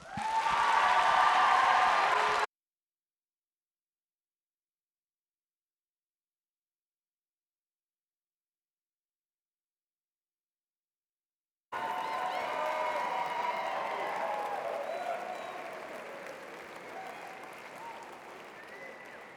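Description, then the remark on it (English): A crowd applauds warmly to welcome a pastor and preacher, in two stretches: a short, loud burst of clapping, a long silence, then sustained applause that gradually thins and fades, with faint cheering mixed in. “So please give a warm Scots welcome to my pastor, my brother, my friend”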